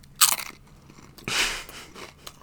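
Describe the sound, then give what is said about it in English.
A sharp crunch as a crisp hot mustard potato chip is bitten, followed by a second burst of crackly chewing about a second later; no one speaks. “What a crunch!”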